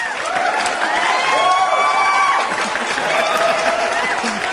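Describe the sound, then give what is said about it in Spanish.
An audience claps steadily for several seconds, with cheering and excited voices mixed into the dense, even wash of applause. “Aplausos porque no se lo esperaban.”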